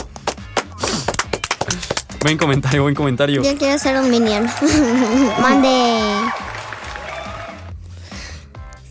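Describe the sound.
A short burst of children clapping, quick scattered claps for about two seconds, followed by voices talking and a bit of laughter with no further applause.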